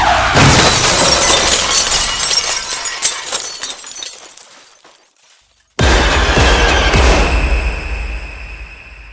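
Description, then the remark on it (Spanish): A loud taxi crash with shattering glass bursts in, fades to near silence, then a second violent smash of breaking glass hits abruptly, leaving bright ringing shards trailing off. No voices. “Cuando el taxi en el que iba chocó, entre sus desvaríos, confesó toda la verdad.”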